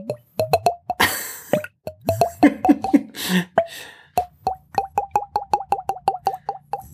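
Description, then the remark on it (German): Wine glugs out of a bottle into a single glass, the whole bottle being poured into it, in a fast, steady run of hollow plopping gulps, clear, with a brief burst of laughter partway through. “und jetzt wohnt sie in diesem Haus und äh, gießt sich gerne äh, die ganze Weinflasche immer in ein Glas Oh, das ist ein Glas.”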